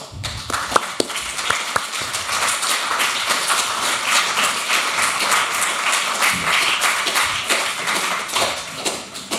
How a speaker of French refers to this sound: Veuillez lui, veuillez, veuillez la regarder. Et l'applaudir.